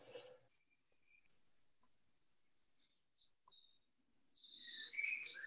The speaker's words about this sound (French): On entend les petits oiseaux chanter derrière toi